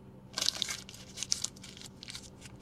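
Crisp crinkling and crunching of a one-dollar paper bill being crumpled up, a flurry of sharp rustling bursts over a couple of seconds with no talking.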